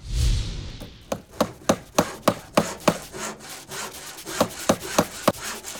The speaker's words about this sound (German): Dieses Geräusch kommt aus der Holzwerkstatt im Haus der Jugend. Dort ist die Mädchengruppe gerade in Aktion.